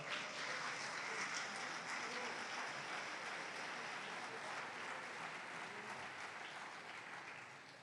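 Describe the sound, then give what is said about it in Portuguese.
An audience applauds steadily to give glory to God, dense clapping filling the whole stretch at an even level before easing slightly toward the end; no one speaks over it. “Aplauda o Senhor, dá glória a Deus.”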